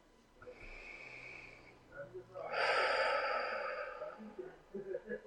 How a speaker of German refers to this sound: Und atmet einfach mal hinein. Und dieses Atmen, atmet, ich liebe ja immer die Pico-Pico-Atmung, das heißt, atmet über euer Kronenchakra ein und atmet über den Bauchnabel aus.